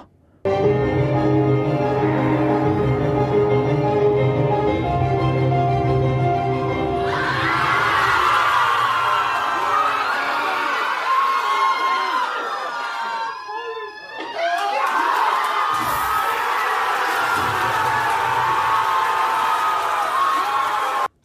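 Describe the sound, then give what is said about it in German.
A loud crowd erupts in cheering and excited shouting, with scattered laughter and overlapping voices. A brief dip, then a second wave of cheering follows after a steady tonal passage at the start. “hören wir mal schnell rein auf eine Reaktion, wo der Event, das passiert ist, auf ein Publikum hatte.”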